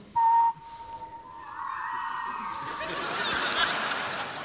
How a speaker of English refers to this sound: Um, and I want to first rehearse with you your whistling. Yes? So I whistle the tone.